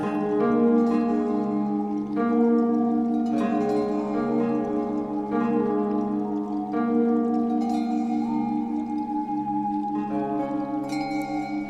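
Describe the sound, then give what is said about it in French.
Calm ambient background meditation music composed especially for people who suffer from pain, with no voices: sustained, layered synth tones hold steady chords that shift slowly every couple of seconds over a soft, gently pulsing low drone, at an even moderate volume throughout. “Cette musique que vous entendez en fond a été composée spécialement pour ceux qui souffrent.”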